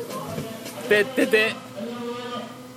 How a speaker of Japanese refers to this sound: 外では選挙の追い込みの演説がやっております聞こえますかね